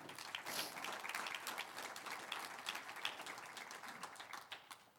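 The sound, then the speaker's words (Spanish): A crowd applauds steadily for about five seconds, a dense, even patter of many hands clapping at once with no voices on top, holding a constant moderate level before easing slightly at the end. “Un aplauso al que vive.”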